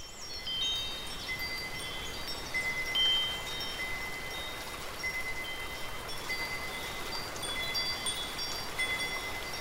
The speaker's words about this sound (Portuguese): Começamos a ouvir alguns sinos delicados ao longe e vamos seguindo o som enquanto a tarde vai caindo no jardim.